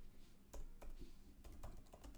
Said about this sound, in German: Vom, vom MacBook ist halt das Mikrofon in der Tastatur drin. Und wenn du halt was schreibst, ist das super laut. Ich glaube, das Tippen hört man trotzdem auch über dieses Mikrofon, was ich hier habe, oder?